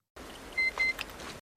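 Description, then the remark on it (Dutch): Two short, clean electronic beeps at the same high pitch, evenly spaced, from a handheld scanner used to check whether someone is infected, over a soft background hiss with no talking. “van de scanner in uh, The Last of Us. Ja, waarmee e- ze checken of iemand dan besmet is of niet.”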